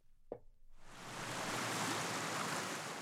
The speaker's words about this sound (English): That sound is the rushing water of the Salt Creek, running alongside the BNSF railroad tracks south of Highway 50 here in Pueblo.